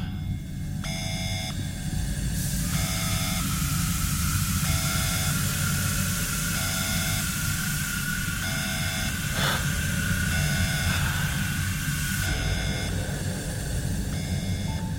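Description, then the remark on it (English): Repeated electronic beeps pulse in a steady rhythm over a loud, continuous hiss of rushing air as a pressure chamber with a great metal door runs its automated process, with a brief surge of noise partway through and no voices. “After passing through the chamber's automated process, the great metal door opens, revealing a set of additional doors with extensive soundproof padding.”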